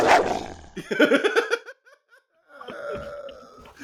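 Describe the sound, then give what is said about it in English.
Dogs bark and yelp in a quick run of short, sharp bursts, go quiet for a moment, then a longer, whining stretch of barking follows, moderately loud. “dogs. we don't like that.”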